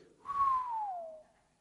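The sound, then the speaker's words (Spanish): A single clear whistle that slides slowly downward in pitch for about a second, fairly loud, with no talking around it. “hasta el otro día solo silbidos se oyen de noche.”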